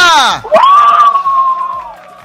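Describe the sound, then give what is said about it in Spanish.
A loud burst of several family members shouting and whooping together, a rising excited yell that settles into a sustained cheer lasting about two seconds, energetic. “A ver que se escucha el grito de la familia.”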